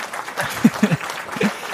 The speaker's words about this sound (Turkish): Buraya alkış efekti koyacağım.